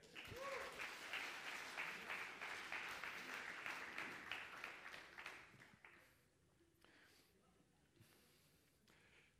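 Audience applause for participants who had just tasted something and are sent back to their seats, a dense, steady patter of many hands clapping that stays loud for about six seconds, then thins out into a few scattered claps and fades.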